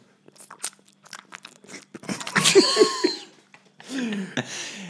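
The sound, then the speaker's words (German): A voice imitates wet kissing, with a run of moist lip smacks and clicks that swell into a slurpy, squelching stretch before trailing off into breathy noise. “Also unsere Lippen treffen sich. Also wenn dann irgendwann so ein Geräusch kommt, so ein.”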